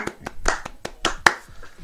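Brief applause welcoming a guest: sharp, separate hand claps, about eight of them at an uneven pace over two seconds, a few louder than others, with no voices.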